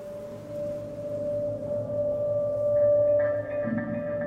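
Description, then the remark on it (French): A steady buzzing hum from a honeybee colony in its winter cluster, contracted around the wax combs inside its hive with the queen at the centre while it freezes outside, droning continuously without pause, with a faint higher tone creeping in toward the end. “Les chants des abeilles”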